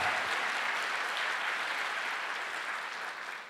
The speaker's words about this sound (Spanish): Dele fuerte ese aplauso al que vive.